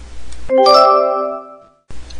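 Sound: doorbell ringing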